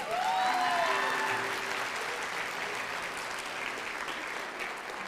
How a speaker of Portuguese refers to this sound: Uou! Palmas para o futuro advogado